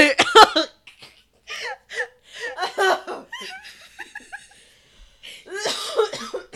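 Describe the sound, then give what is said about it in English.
A heavy coughing fit: a cluster of harsh, rasping coughs opens loudly, then more hacking breaks up amid wheezy laughter and strained breaths over several seconds. “God, no, we really out here like hacking up some lungs, man.”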